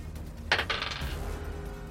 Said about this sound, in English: Give me a dice roll.